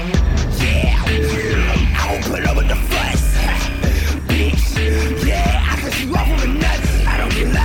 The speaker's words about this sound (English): Yes, I love this. I love the distortion. This is that distortion I was talking about.